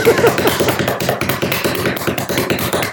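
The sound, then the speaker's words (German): A rapid, steady run of taps on a hard surface, an improvised drumroll played fairly loud for a few seconds with no voices over it. “Ja, mach einen Trommelwirbel, bitte.”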